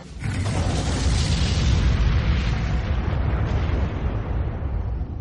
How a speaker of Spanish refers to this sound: Puede que tuvieran cientos e incluso miles de veces la masa del Sol. Apenas aguantarían un poco unidas antes de estallar en una explosión de supernova.